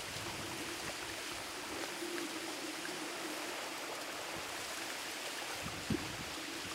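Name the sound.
flowing river water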